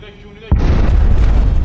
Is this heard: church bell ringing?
no